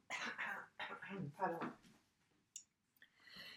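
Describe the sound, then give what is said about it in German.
Several harsh coughs in quick succession, followed by a brief pause, a couple of small clicks and a softer throat clearing at the end. “Kurze Hustenpause.”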